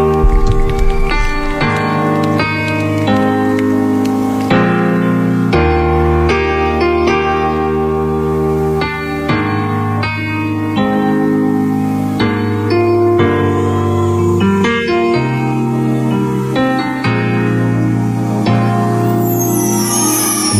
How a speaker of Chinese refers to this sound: 然后送各位一首非常好听的歌曲，结束我们今天的节目。